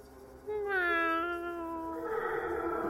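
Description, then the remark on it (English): A person's voice lets out one long, loud, eerie imitation of a cat meow, calling out to find a cat, its pitch sagging slowly before trailing off into a breathy hiss. “I'm gonna, I'm gonna use my haunting meow.”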